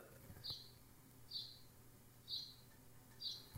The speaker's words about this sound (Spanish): Ya le está bajando su pedo ese puto pájaro de mierda. Ay, chingas a tu madre. Bueno, lo siento, pero tendrá que escucharse el pájaro. Voy a ver si lo detecta, a ver.